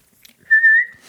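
A person gives one short whistle, a steady, clear tone lasting under half a second that lifts slightly in pitch at the end. It is fairly loud, with no talking.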